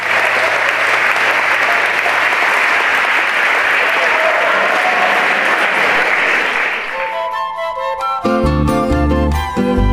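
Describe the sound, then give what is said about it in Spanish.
Loud, sustained standing applause from a large crowd in tribute to the memory of Carlos Avellaneda, a dense wash of clapping that goes on for several seconds before music with clear tones takes over near the end. “A él, a su alma, a su legado, a su memoria y a su recuerdo, entregamos hoy el más sonoro aplauso de pie para el gran Carlos Avellaneda.”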